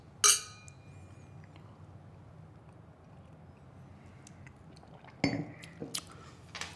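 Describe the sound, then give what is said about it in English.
Glasses clink together once in a toast, a bright, ringing chime near the start. A quiet hum follows, with a few softer knocks and clatters toward the end and no talking. “grab your drink, because we are toasting to our differences, which there's not a lot of those.”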